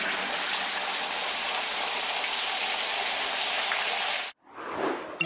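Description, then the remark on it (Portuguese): Shower water runs in a steady, hissing spray as someone takes a shower, then cuts off abruptly near the end, followed by a brief, softer rush of water. “E a resposta correta é. Alguém está a tomar duche.”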